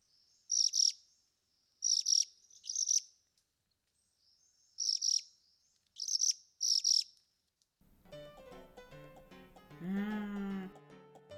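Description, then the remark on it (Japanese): Ryukyu minivet calls: six short, high, thin trilled bursts in two groups of three, heard as 'hiririri', clear, followed by a lower, harmonic call near the end. “この日本語の名前つまり和名の由来は琉球山椒食いの鳴き声がヒリリリリヒリリリリと聞こえてあの辛いこう山椒を食べたんじゃないかと思わせるからなんだそうですそんな風に言われるとこう鳴き声聞きたくなりますよねちょっと聞いてみてください”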